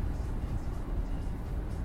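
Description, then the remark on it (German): A passenger car's low, steady rumble of engine and road noise holds at an even loudness for a couple of seconds, with no voices over it. “Okay, das ist ein PKW oder ein Kfz.”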